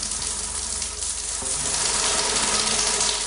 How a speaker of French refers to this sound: Bon, je prends ma douche là.